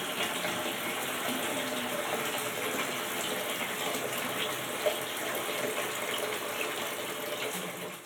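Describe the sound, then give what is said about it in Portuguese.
Steady running water from a faucet pours into a sink for several seconds while filling buckets for cleaning with bleach, vinegar and plain rinse water, a continuous hiss and splash with a faint clink partway through, and no voices. “É, então, com água sanitária, vinagre e uma água para tirar a segunda.”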